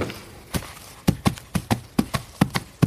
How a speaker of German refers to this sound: Das wäre das eine Pferd, etwas kleineres Pferd. Ne?